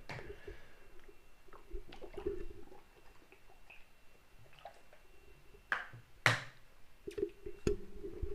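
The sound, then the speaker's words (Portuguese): Someone drinking water: soft sips, swallows and wet clicks scattered across a quiet stretch, with a sharper clatter, like a cup or bottle, near the end. Nobody speaks. “Acho que nunca tinha parado assim drasticamente para beber água.”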